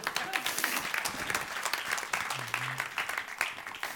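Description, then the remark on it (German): A crowd at the church Kirche im Brauhaus applauds itself steadily, dense clapping at a constant level for several seconds without a pause, with faint murmurs mixed in. “Ein Applaus an euch selber.”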